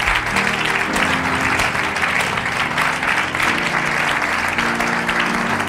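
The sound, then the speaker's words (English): A church audience gives a "prophetic clap", clapping steadily for several seconds, a dense, continuous wash of many hands at full volume, with sustained low musical tones like an organ or keyboard playing underneath. “Somebody release a prophetic clap in this place.”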